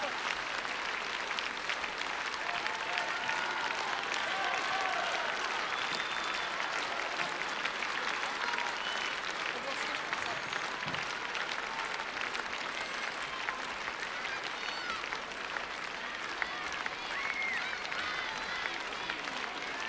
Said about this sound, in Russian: Какие вы молодцы, ребята! Сколько радости вы дарите своими аплодисментами участников нашего концерта.